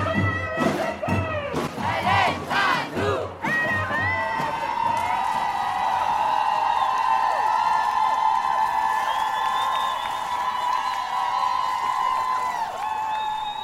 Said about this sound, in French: Voilà, ce que vous venez d'entendre, c'est la marche de nuit qui avait lieu hier soir dans plusieurs villes de France, et notamment à Paris, où on est parti de la place des Fêtes vers 19h30.